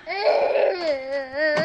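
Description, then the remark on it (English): A baby girl, brought along to an interview and needing her diaper changed, cries in one long, strained wail that wavers in pitch, loud and unbroken, with no talking over it. “Any chance we can get the little lady to be quiet? Not until I change her diaper.”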